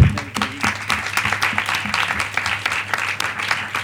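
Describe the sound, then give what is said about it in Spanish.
An audience applauds steadily, many hands clapping in a dense, even patter with no clear pauses, accompanied by a faint low hum and occasional brief murmurs. “Un, aplauso ¿no?”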